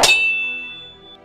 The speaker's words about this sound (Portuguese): como se tu tivesse rasgando algo metálico e tu vai trincando esse metal.